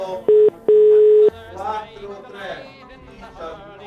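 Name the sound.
telephone dialing tones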